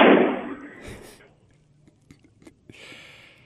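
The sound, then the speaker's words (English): A door bangs shut somewhere off in the distance, one heavy boom with a reverberant tail that fades over about a second, followed by a few faint clicks and a soft hiss. “By the way, there was a loud bang in the background.”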